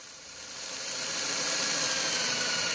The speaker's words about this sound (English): so I decided to catch up on some light woodworking, using my circular saw and router to make some decorative pieces for a four poster bed.